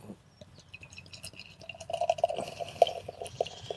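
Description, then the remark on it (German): A very pale special beer of 5.6% alcohol, opened with a fork, splashes and trickles into a glass, starting with light drips and building into a steadier, louder pour with rising tone and bubbling toward the end. “Gib mir mal dein Glas an.”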